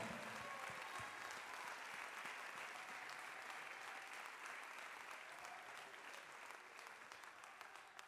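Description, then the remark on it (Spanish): An audience applauds the Lord steadily, a dense wash of many hands clapping at even loudness throughout, with no voices standing out above it. “Vamos a aplaudirle al Señor con todo el corazón.”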